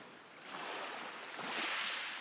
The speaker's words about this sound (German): Das Rauschen der Wellen wird leiser, das Wehen des Windes wird leichter.